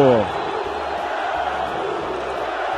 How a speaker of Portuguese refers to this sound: 46 minutos, explode a torcida do Atlético.